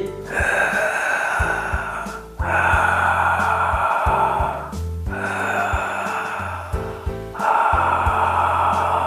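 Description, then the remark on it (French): Loud, rasping ujjayi-style breaths drawn through a narrowed throat, alone, as a breathing exercise: four long hissing phases of inhale and exhale in steady succession with brief pauses between. “Deux respirations d'Arvador et deux respirations sans bruit.”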